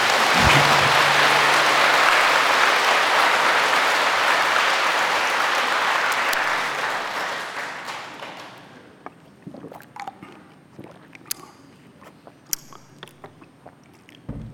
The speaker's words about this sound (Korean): 박수 한번 나올 때 안 됐나?